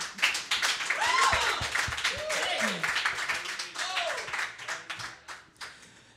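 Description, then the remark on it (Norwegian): A crowd breaks into steady, dense applause for two quiz contestants, lasting several seconds, with a few whoops and voices rising through the clapping before it thins out toward the end. “Applaus”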